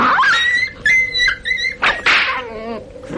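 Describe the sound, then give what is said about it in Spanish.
A dog yelps and whines in a rapid series of high, shrill cries, broken by a couple of harsh, snarling bursts, as if in a scuffle, after being kicked by a man and biting his leg, tearing the cloth. “El perro, tras recibir un puntapié del huésped, le mordió en una pierna, desgarrándole la tela.”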